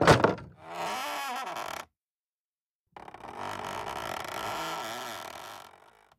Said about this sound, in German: Nachdem sie zurückgekehrt war, klopfte sie behutsam an die Schlafzimmertür. Niemand antwortete. Dann öffnete sie die Tür vorsichtig.